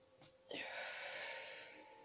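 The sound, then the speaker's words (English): A long, steady deep inhale through the nose, taken as a guided breathing exercise, begins abruptly and continues as a broad, airy hiss for about a second and a half, fairly loud, then tapers slightly toward the end. “Um, as always, I would just like to take a couple of moments for us to take a deep breath in through our nose.”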